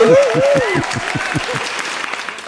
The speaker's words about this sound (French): Cette espèce de rire pervers qu'il y a dans cet applaudissement. C'est ça, c'est horrible.